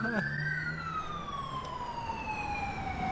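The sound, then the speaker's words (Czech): A loud, piercing emergency vehicle siren wails, its shrill tone sweeping slowly downward in one long glide over a low background rumble. “Tohle je hodně agresivní siréna.”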